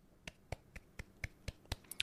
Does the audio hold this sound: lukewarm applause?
yes